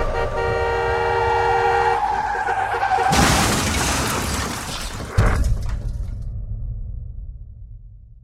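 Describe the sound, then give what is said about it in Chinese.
A car horn blares steadily, then a loud, harsh tire skid screeches for about two seconds before a sudden crunching crash, followed by a low engine rumble that fades away. “哥，车！我操！”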